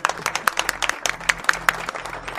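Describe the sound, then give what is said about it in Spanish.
A crowd gives a loud round of applause for padel player and sports journalist Sebastián Giazone, with steady, overlapping claps, a dense crackling patter of many hands that keeps an even level throughout, with no voices heard. “Le podemos dar un fuerte aplauso a Sebastián Giazone.”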